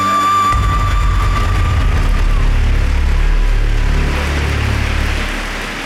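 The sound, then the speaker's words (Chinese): A crowd breaks into applause, a dense, steady wash of clapping that starts abruptly and holds loud for about five seconds before beginning to taper off, with no voices over it. “不过呢，如果你也肯定台湾的经济表现，请鼓掌一下好吗？”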